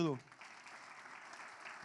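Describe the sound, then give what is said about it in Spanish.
An audience claps steadily, a dense crowd applause that stays even and moderately loud throughout, after a brief voice at the very start. “Denle un aplauso a”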